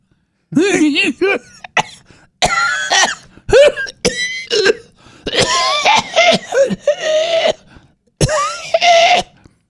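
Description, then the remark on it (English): A loud run of harsh coughing and throat clearing, with strained, voiced bursts in several clusters and short pauses between them. “Wow, you're the other one that needs a lozenge.”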